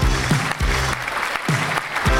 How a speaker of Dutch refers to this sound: Ja, nog een hard applaus graag.